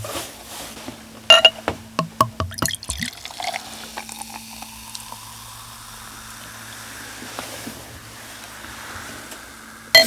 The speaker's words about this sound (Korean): 마이크 앞에서 이 맥주를 따르니까 이 헤드폰으로 하는 소리랑 이 소리가 들리니까 정말 쾌감이 기분이, 있네요. 네, 정말 또 이게 다 다르네요.